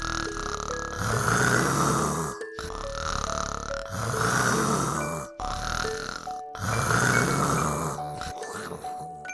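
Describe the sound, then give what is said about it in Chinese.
Sheep lying on the grass of a pasture snoring as they sleep, in four long, rasping snores at a steady rhythm, each followed by a brief pause, with faint whistling tones drifting between them. It sounds cartoonish, and no one speaks. “很快的，每一只羊都开始打呼了呢。你们有听到打呼的声音吗？”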